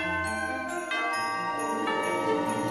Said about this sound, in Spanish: Y cada Navidad escucharás sonar esta campana mágica.